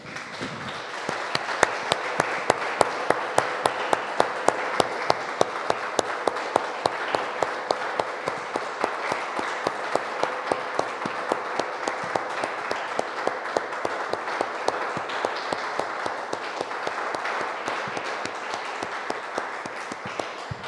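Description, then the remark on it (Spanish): A church audience applauds the Lord after a prayer, clapping steadily for about twenty seconds, the many hands falling into a brisk, fairly even rhythm, with a faint sustained tone humming underneath and no talking. “Damos un aplauso, hermanos, al Señor.”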